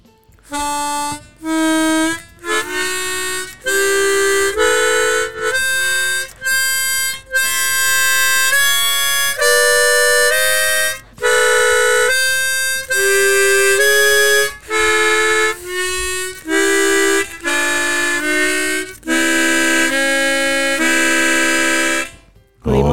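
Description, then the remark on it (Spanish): A large professional chromatic harmonica plays alone, loud: a run of reedy notes moving up and down in small half-step steps, showing semitones a smaller harmonica cannot play, some held, some short, with brief breaths between phrases. “Si tú tienes ahora mismo una armónica, mucho más grande.”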